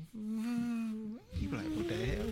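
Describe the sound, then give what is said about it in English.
A voice hums a steady, low electronic drone, briefly slides upward, then continues with a wavering, warbling tone, mimicking the quiet whine of a Prius hybrid car creeping up. “Like I was in my car and I was getting out, and I just, it sounded like a UFO creeping mm-hmm.”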